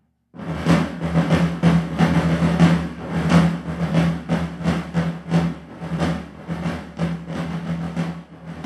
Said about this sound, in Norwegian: Slik kan en ekte militær trommemarsj høres ut når kong Fredrik 4.s tamburavdeling av 1704 marsjerer i festningsbyen Fredrikstad.